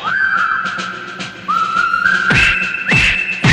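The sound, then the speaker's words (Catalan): A football stadium crowd of Sporting supporters at El Molinón whistles loudly and continuously at the start of a match against Barça, shrill sustained and rising whistles layering over one another above a dense roar of noise, with no one speaking. “Xiula el públic de l'Sporting.”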